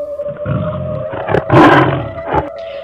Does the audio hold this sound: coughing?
no